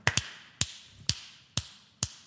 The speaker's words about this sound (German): Nein, ich hab so bitte vor allem, ich kann so laut schnipsen.